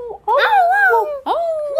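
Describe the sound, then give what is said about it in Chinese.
A voice imitates dog howling with two drawn-out, wavering 'awoo' calls that rise and then slide down in pitch, the second starting right after a brief break. “不管听到谁的声音，就算我们不太认识啊，也会很用心的回应哦，因为我们是家人呐，所以你就常听到狗狗说嗷呜嗷呜嗷呜嗷呜”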